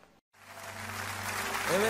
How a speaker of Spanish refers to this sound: fuerte ese aplauso a Él.